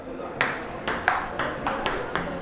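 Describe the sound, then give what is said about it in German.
A white, air-filled plastic table tennis ball clicks back and forth in a quick rally, about eight or nine crisp, hollow taps in an uneven rhythm, fairly loud. “Der sorgt beim Spielen für das ganz typische Geräusch, an dem man unser Spiel sofort erkennt.”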